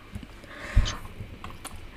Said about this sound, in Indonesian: Gue, ngetik pun kagak ngomong.